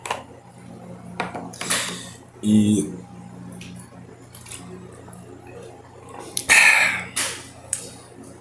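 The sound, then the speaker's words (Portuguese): Quiet sipping of water from a glass: a short gulp, soft breaths, then a brighter clink as the glass is handled, with a brief murmured syllable in between. “Só tomar um pouquinho mais de água aqui, manter a minha garganta hidratada.”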